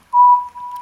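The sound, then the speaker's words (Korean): An oriental scops owl calls once along a road after dark on an autumn evening, a clear, steady whistled note that dips briefly midway and then carries on, alone, with no other sounds around it. “그렇게 돈을 갖고 신나게 집으로 돌아오는 길 어느새 날은 어두워지고 길에 소쩍새 소리만 들려왔다지요”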